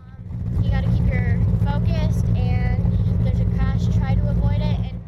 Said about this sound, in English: Cars are speeding around in the Montezuma County Fairgrounds Speedway with drivers of all ages behind their wheels. Some of them are kids as young as 10 years old.